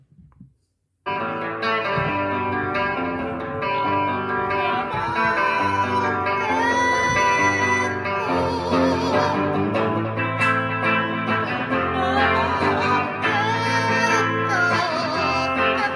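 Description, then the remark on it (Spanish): A parrot screeches in loud, distorted, guitar-like tones over continuous rock music, starting abruptly after a brief quiet moment and holding steady and dense for the rest. “El de la guitarra es un loro.”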